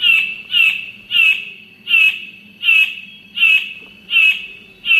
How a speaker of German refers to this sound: Das sind übrigens die ersten Aufnahmen dieses neu entdeckten Vogels aus diesem Jahr.